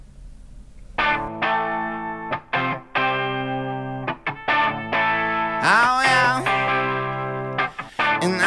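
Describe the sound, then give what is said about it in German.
A pop song recording is played, with a heavily processed, distorted vocal and bright, sustained harmonic tones, chopped into rhythmic bursts with short gaps, loud throughout. “erstmal ein Lied zu hören. Und zwar das Lied … von …. Ähm, das wird jetzt gleich eingespielt.”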